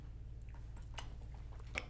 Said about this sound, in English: Take a little drink of water to clear that out.